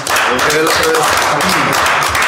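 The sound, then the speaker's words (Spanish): A burst of dense applause, steady and fairly loud throughout, while voices talk and call out over the clapping. “Con Un aplauso, por favor, que nos”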